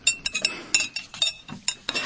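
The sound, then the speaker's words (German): Coffee cups clink together repeatedly in a quick, irregular series of bright, ringing taps, some overlapping, with a soft rattle of crockery underneath and no talking. “Hoch die Tassen.”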